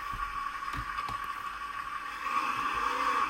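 A small car's ignition is started and its engine hums steadily with a few sharp knocks and jolts early on, then its tone rises and wavers as it judders through an upshift. No one speaks.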